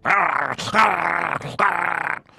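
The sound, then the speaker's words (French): A voice imitates a dog growling as it gnaws at someone's fingers: a loud, rough snarl in three sustained bursts separated by brief gaps, with no words spoken. “Son chien saute à ta main, puis commence à gruger un tes doigts”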